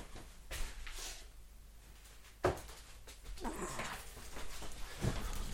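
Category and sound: animal, dog whimpering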